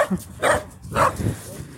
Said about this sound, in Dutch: Het is altijd hoe kleiner het hondje, hoe harder dat ze blaffen.